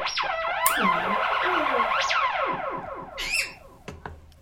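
A pet bird named Goose mimics with loud, swooping whistles that rise and fall like a car alarm, followed by a quick burst of high chirps and a couple of sharp clicks. No one talks.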